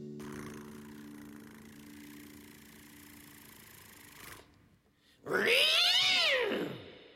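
A low, steady rumbling drone runs for about four seconds, then a brief pause before a single loud meow from a female pet house cat that rises and falls in pitch, with no talking.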